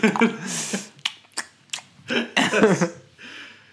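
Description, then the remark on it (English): Deliberate lip smacking by a person, used to fill pauses in speech: a string of short wet mouth clicks and smacks in an irregular rhythm, mixed with a few wordless vocal noises and breathy sounds. “I'm just gonna like put in the vocals of someone just being like like smacking their lips.”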